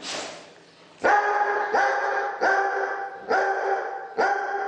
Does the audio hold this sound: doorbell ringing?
no